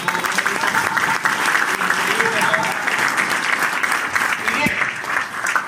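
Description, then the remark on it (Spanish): A crowd applauds steadily for several seconds, a dense wash of many hands clapping at an even, sustained loudness, with faint voices mixed in underneath. “Vamos a darles un fuerte aplauso, por favor,”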